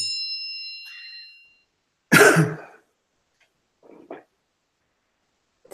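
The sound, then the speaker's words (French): A telephone gives a single high, bright ring that hangs and fades over about a second. Then a loud cough follows, with a couple of soft knocks afterward and no talking. “Ah, c'est le téléphone, d'accord.”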